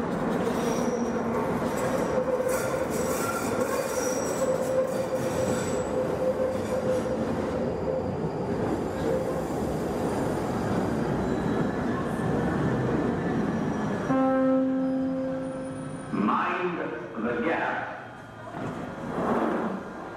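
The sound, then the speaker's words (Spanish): A London Underground train roars along in a loud, steady rumble, with high metallic wheel squeals whining above it, then the noise drops and shifts as the train slows near the end. “se escuchan en el metro de Londres? Por escuchar, escucharás mil idiomas, conversaciones paralelas y eh, ruidos varios.”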